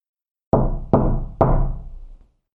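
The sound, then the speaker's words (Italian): Three loud, heavy knocks on a door in quick succession, Pinocchio knocking a second time, harder, each booming hit ringing out briefly before fading into silence, with no voices. “Per cui Pinocchio, che trema dal freddo e dalla paura, si fa coraggio e bussa una seconda volta, più forte.”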